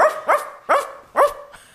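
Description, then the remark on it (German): A person imitates how their own dog barks: four short, punchy woofs in quick succession with a slightly uneven rhythm, fairly loud, followed by a faint trailing breath. “Äh, letzte Frage im Steckbrief ist, mein Hund bellt so.”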